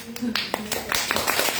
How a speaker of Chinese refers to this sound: 所以你看哦，我们还没有确诊哦，还算幸运哦，鼓掌一下。